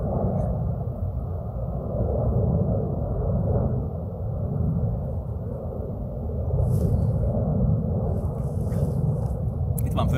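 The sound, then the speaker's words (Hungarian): A steady, low droning rumble of an airplane flying overhead along an air corridor, heard outdoors in warm, sunny weather, holding fairly loud and even throughout with no clear voices on top. “egy légi folyosó.”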